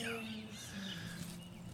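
Faint birdsong drifts through an outdoor setting in fine weather, with thin chirps and short warbling phrases over a soft, steady background hum.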